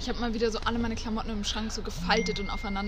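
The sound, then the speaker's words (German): A short, bright notification chime from a woman's mobile phone rings out near the end and holds a steady tone while she keeps talking over it. “Es tut mir so leid, das ist mein Handy.”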